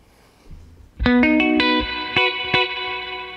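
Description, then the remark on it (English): Electric guitar through a 1963 Fender tube spring reverb tank: after a brief quiet moment, a quick run of picked notes and chords rings out, each attack leaving a shimmering, slightly gritty tail, played alone. “It sounds like a, the little '63 Fender, tube tank, uh, reverb tank.”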